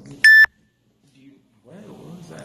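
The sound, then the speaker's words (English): A single short, loud electronic phone notification beep rings out sharply at the start, a bright steady tone, followed by quiet and then muffled voices talking in the background. “Oh no, that's just a random notification that popped up on the phone.”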